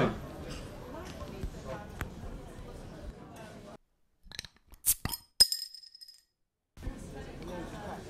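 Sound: beer bottles clinking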